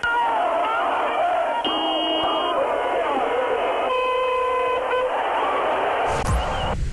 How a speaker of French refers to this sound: Des centaines de voitures, des milliers de gens à pied se présentent au point de passage du mur où je me trouve dans un concert d'avertisseurs et de cris d'allégresse.